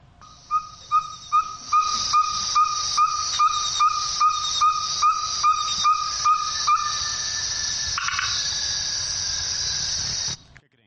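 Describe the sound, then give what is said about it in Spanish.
A small frog or toad croaks in a steady series of short, evenly spaced calls over a constant buzzing chorus of night insects that continues after the croaking stops; there was water nearby. “Hay un, ¿no escucharon una especie de sapito, una ranita?”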